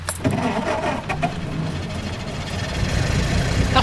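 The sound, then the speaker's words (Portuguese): An ambulance van's engine cranks with a few quick turns of the starter as the ignition key is turned, then catches and settles into a steady, rumbling idle, with no talking. “Bota a chave da ignição e giro.”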